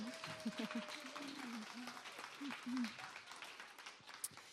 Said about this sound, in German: Wir hatten im äh, Applaus. Applaus für die Bibel.